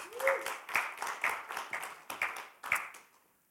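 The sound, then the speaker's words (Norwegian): An audience applauds after a worship song and prayer, a dense wash of many hands with stronger claps landing in a steady rhythm about twice a second, then the clapping thins out and fades at the end. “Ja, vi gir det en klapp.”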